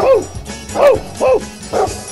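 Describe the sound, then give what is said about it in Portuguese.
A dog barks four times in a steady rhythm, each bark a short, fairly loud woof with a rising-falling pitch, over a low background rumble. “Eita, coisa boa, meu povo cachorro fedegoso, é a família completa.”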